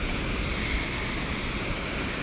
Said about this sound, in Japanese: 私は今ですねえっ、ー、と松のすごく大きい松の木の下松林松林のすごく大きい松の木の下にあるあの2メートル直径2メートルぐらいのあのなんか素敵なベンチの上に1人座って配信しておりますはいあのなんかこういう波の音っていいなと思って